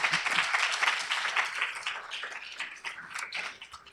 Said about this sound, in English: So please, can we give them a round of applause?